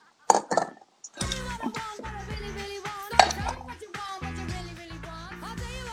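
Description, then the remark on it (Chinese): Chopsticks clatter down onto the floor in two quick, sharp clicks, followed by a few more scattered hard clacks over a steady, tonal background that continues to the end. “我听到好几次掉地上的东东西的声音，”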